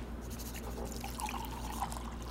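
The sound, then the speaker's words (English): Coffee is poured steadily into a cup, a continuous trickle with a faintly rising pitch as it fills, over a low background hum. “Would you like some more coffee?”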